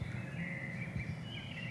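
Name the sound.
birds chirping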